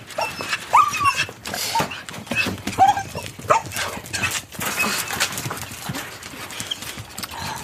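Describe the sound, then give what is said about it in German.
Three dogs whimper in short, high whines while paws and bodies shuffle and clatter, a busy scramble of movement without any talking. “Und zum Abschied dieses langen Tages kommen dann endlich auch die drei Hunde zu ihrem Recht”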